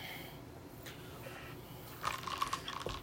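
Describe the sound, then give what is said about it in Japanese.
A drink being handled, with a cluster of bright clinks and liquid sloshing near the end, ice knocking in an Ice Box cup holding 25% lemon sour concentrate with a little soda water, just after a toast. No one speaks. “ああ、なんか氷の音がするけど。”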